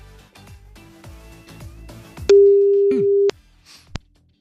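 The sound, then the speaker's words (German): A phone line clicks and crackles as a number is dialed, then a single steady electronic ringing tone sounds for about a second, followed by a sharp click of the call connecting. “Ich rufe jetzt mal bei der ersten Nummer an und sind mal gespannt, wer dran geht und vor allem wie.”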